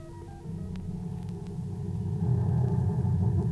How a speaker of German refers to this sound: Einbegriffen in die Geräusche sind auch die, sonst natürlich ebenfalls unhörbaren, Impulsfolgen beim Einspeichern der Daten von Lochkarten und beim Ausdrucken der Ergebnisse über einen Schnelldrucker.